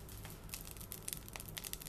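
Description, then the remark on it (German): Butter sizzles in a hot pan, heated for frying meat, a soft, steady crackle with scattered little pops, somewhat distant and fairly quiet, with no voices over it. “Ah, hörst du da hinten die Butter? Die britzelt schon etwas.”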